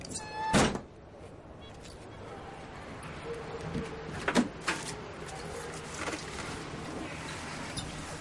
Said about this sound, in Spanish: Mete unas sillas de playa en el maletero del coche de Kaplan.